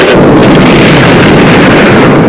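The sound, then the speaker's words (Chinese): A massive atomic bomb blast roars in a loud, unbroken rumble, heavy in the deep lows and hissing across the top, sustained without letup for over two seconds, with no voices. It is China's first atomic bomb test, detonated on 16 October 1964. “一九六四年十月十六号，我国第一颗原子弹爆炸成功，腾空而起的蘑菇云振奋了全中国。”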